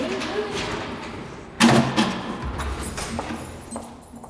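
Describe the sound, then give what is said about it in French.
A door is pushed shut with a single solid thud partway through, followed by a few lighter knocks and rattles against a murmur of room noise and faint voices. “Je trouve que c'est quelque chose de terrible de refermer la porte sur quelqu'un.”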